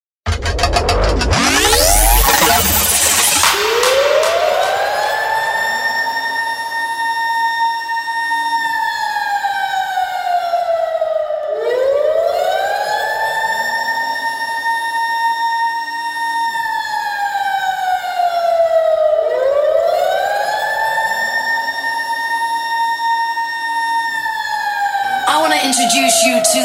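A loud electronic piece opens with a siren-like wail that swoops up and slowly glides down, repeating three times in long, steady cycles with a bright burst at the start.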